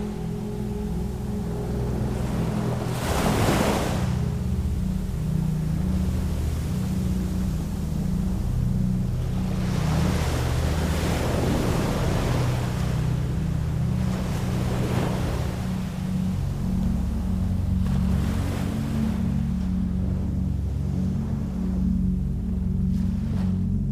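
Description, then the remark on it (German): Ocean waves break gently on a sandy beach at night under a full moon, in slow, recurring surges every few seconds, each swelling into a broad hiss and fading, over a steady low rumble throughout. No voices. “Das Rauschen der Wellen wird lauter, während du dich dem Strand näherst.”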